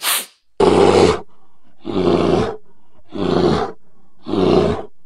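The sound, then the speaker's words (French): A bear roars four times in loud, deep bursts, each lasting about half a second with short pauses between, after a brief rush of noise at the start. No one speaks. “l'ours est avec nous ce soir car il vient de sortir de cure de désintoxication.”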